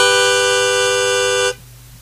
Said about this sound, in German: Da hatten wir ja so einen coolen Spoiler-Alarmton. Warte mal ganz kurz. Alles klar, dann mache ich jetzt einmal kurz den Spoiler-Alarmton und dann verraten wir euch, wer drin ist.